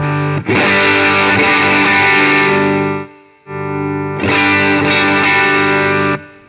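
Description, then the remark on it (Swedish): An electric guitar played through an overdrive pedal with the gain turned up to ten rings out in two loud, sustained, saturated chord bursts with a short pause between, no voices. “Ja, och sen om man drar upp på tian då.”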